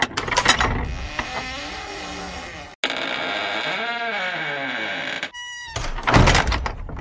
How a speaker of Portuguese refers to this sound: É, produção, tá, bota uma, um som de porta abrindo, tá? Nesse momento.